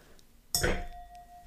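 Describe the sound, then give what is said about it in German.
A single bright clink of two glasses of sparkling wine (Winzersekt) touching in a studio, sharp at first, then a high ringing tone that lingers and fades slowly. No voices are heard. “Jubiläumsfolge wäre keine Jubiläumsfolge, wenn es nicht doch auch einen Rückblick gäbe und ein Glas Grimo, ein Glas Winzersekt in der Hand.”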